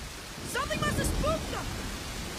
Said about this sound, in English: No music, just the sound of rain and thunder.